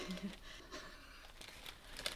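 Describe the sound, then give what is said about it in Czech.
Wrapping paper crinkles and rustles in short, irregular bursts as a delivered parcel is unwrapped, fairly quiet, with no one speaking. “V přenosu přišla zásilka.”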